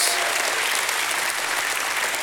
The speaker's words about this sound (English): Uh, can you give God a hand clap and a shout of praise?